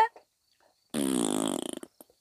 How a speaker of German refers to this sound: Was ist denn das für ein Pups? Was ist das? Ist das etwa ein Pupskissen? Das ist lustig. Ja, es ist ein Pupskissen.